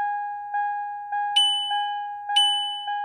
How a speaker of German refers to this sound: Ihr kennt das Geräusch, so oder so ähnlich nerven Autos, wenn man sich nicht anschnallt.